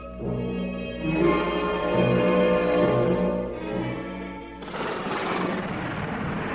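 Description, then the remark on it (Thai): Sustained tonal music plays for several seconds, then a sudden loud thunder crash bursts in and keeps roaring as a broad, rumbling wash of noise until the end, as thunder and lightning strike over a mountain covered by thick cloud. “รุ่งขึ้นในวันที่สาม เกิดฟ้าร้องฟ้าผ่ากลุ่มเมฆหนาปกคลุมภูเขา และเสียงแรอันดัง”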